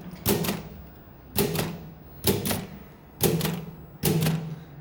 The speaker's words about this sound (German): Was macht denn diese antiquierte Schreibmaschine? Ich schreibe da jetzt einfach mal was drauf und dann sehen wir, was die kann, diese Schreibmaschine. Die kann also schon mal schreiben. Ein bisschen.